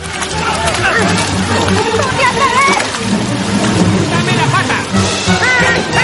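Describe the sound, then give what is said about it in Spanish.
Steady, loud splashing and sloshing of river water as rats launch rafts built from household objects such as umbrellas, teapots and boxes, the last ones jumping into the boats from the bank, with a busy mix of excited voices and high chattering calls layered over it. “Los últimos saltan a los botes desde la orilla.”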